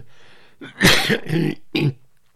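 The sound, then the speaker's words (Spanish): A loud bout of coughing and throat clearing: one long rasping burst followed by two shorter harsh coughs in quick succession, with no talking. “bueno, esto ya no es ronquera, esto ya no es tos, esto es...”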